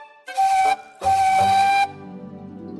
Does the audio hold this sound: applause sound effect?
no